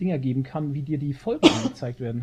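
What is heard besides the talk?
sneeze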